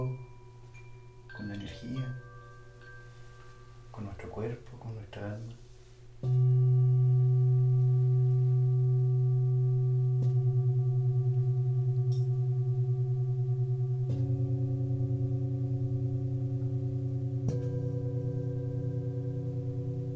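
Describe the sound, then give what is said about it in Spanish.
Singing bowls resonate with long, sustained, layered hums during a sound healing session, louder tones swelling in partway through and fresh bowls joining at intervals, after a quieter opening with a soft voice murmuring. “Sesion de cuencoterapia, sound healing”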